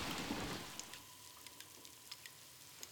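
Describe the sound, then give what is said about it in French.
Water drips inside a cave in total darkness, with a brief hiss at first and then single drops falling at irregular intervals, each a soft, clear plink, with no voices. “Les seuls bruits qu'on entend dans une grotte, c'est le bruit de l'eau. Ça peut être des gouttes qui tombent”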